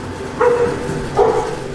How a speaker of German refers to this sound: Ein Bellen durchdringt das Schweigen der Würmer. Familienhund Luna, ein blonder Labrador-Mix, trottet durch die Halle.